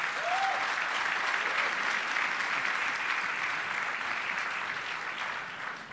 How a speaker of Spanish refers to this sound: ¿Quiénes son los invitados, por favor? Démosles un fuerte aplauso de bienvenida.